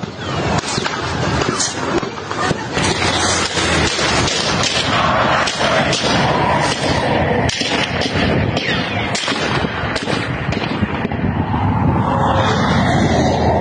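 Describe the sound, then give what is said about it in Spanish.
Rapid, repeated gunshots in a shootout between police and criminals who tried to steal a trailer in Tamaulipas, Mexico, crackle and pop throughout, loud sharp bursts coming in irregular volleys over a constant roar of background noise, with no one speaking. “Los reportes dicen que civiles a bordo de un vehículo intentaron robar un tráiler y por eso comenzaron los disparos entre policías que vigilaban la zona y los delincuentes.”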